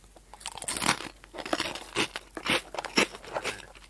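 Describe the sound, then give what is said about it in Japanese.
Crunchy Poteron snack sticks being chewed, a steady run of loud, crisp crunches in an uneven chewing rhythm, with no talking over them. “にわかに咀嚼音動画になりますけど。”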